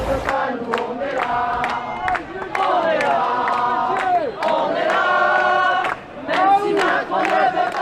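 A large crowd of protesters on the Champs-Élysées on 14 July roars continuously, with shrill whistles at the president and rising shouts and chanting cutting through a dense wall of voices, loud throughout.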